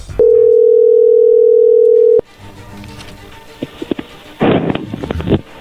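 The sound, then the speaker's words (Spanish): A loud, steady telephone line tone hums for about two seconds as a phone call is being dialed, then cuts off abruptly, leaving faint line hiss, scattered clicks and a burst of rustling noise. No one speaks. “no haga ruido, ahí se está marcando.”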